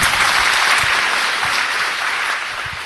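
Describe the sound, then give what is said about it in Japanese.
Loud, steady audience applause after a talk fills the whole clip, a dense wash of many hands clapping at once with no pauses, fading slightly toward the end. “皆様もう一度大きな拍手をお願いいたします”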